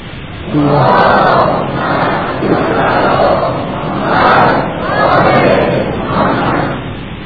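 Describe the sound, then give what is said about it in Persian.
A large audience chants a salawat blessing in unison, loud, rising and falling in several rhythmic surges of many voices over about seven seconds. “یه صلوات از من بلند صد بکنه بلندتر از اینجا”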